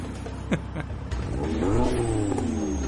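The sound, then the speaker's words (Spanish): A modified car driven by Paul Walker in Los Angeles at night revs up and accelerates, its pitch climbing and swelling into a loud, sustained roar, with a few sharp clicks at the start. “Y ahí acelera.”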